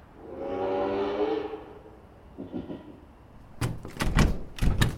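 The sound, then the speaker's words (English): A locked door is tried and rattled, a burst of sharp clunks and knocks in quick succession near the end, after a sustained low droning tone at the start. “Ugh, we need someone to open the door for us.”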